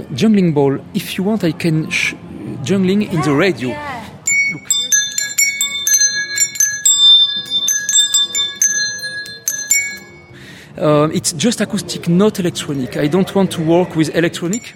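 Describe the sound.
Bright bell-like chimes from specially invented, purely acoustic sound-making juggling balls, juggled in front of a radio microphone, ring out in quick, irregular strikes for several seconds, with someone speaking before and after.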